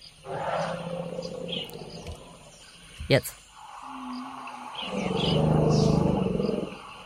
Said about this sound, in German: Ich habe eine Aufnahme gefunden, mhm. wo man das so ein bisschen hören kann, wie sich Elefanten auf den tiefen Frequenzen unterhalten.